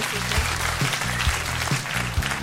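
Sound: applause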